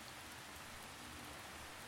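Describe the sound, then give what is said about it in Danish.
Steady rain falls in a continuous, even hiss, with dense patter of drops on a surface and no voices, holding at a constant moderate level throughout. “Det har regnet så meget, at der er kommet en kæmpe vandpyt i sandkassen.”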